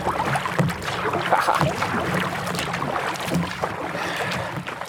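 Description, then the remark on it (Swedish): Oars splash and churn steadily through water as a rowing boat moves along, with repeated rhythmic strokes over a continuous wash of water and faint wind noise. “Och ro ikapp dem. Eller paddla ikapp dem. Det är de som ror.”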